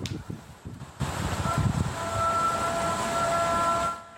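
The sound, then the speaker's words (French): A Muslim call to prayer broadcast over a loudspeaker by the Annour mosque in Creil, Oise, France, on a Friday, heard dozens of metres away: a sustained, wavering chanted voice with a hard, amplified tone rising out of a steady background wash, then cutting off near the end. “un appel à la prière diffusé par haut-parleur.”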